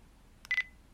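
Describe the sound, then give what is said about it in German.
A short electronic system beep from a device with speech output: a brief click-like blip followed by a steady bright tone lasting a fraction of a second, clear against quiet low background noise. “Mit, System, mit Systemton sind diese Piepsignale gemeint, die man hier ständig hört.”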